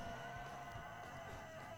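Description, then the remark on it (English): Chickens, a flock with no rooster, cluck and squawk together in a continuous, steady din with no pauses, several birds overlapping at a fairly even level and no one talking. “I mean, you know, and I don't have a rooster, praise, praise God, but let me tell you, those chickens are, are constantly stressing each other out.”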